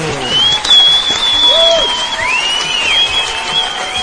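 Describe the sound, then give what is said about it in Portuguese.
A steady burst of clapping from a crowd, sustained for about four seconds, with high whistles and faint cheering running through it. “Palmas pro 31.”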